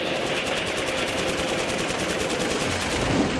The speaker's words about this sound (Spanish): Entraron a la cueva. Una andada de explosiones y tiros sonaron adentro. Nosotros estábamos petrificados.